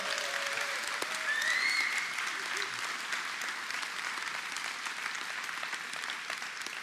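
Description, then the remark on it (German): An audience at a baptism service applauds in a steady, dense wash of clapping that holds at an even level throughout, with a few faint whistles or cheers rising briefly near the start. “Von daher gebt ihr mal einen richtig fetten Applaus.”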